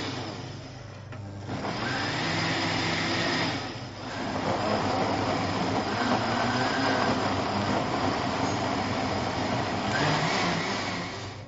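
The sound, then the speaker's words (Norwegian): A blender runs steadily for about eleven seconds, a loud whirring motor drone with a brief dip in pitch and power partway through, churning soup with no one speaking. “Når du da har eh, tatt og kjørt den i blender, så smaker du selvfølgelig på den.”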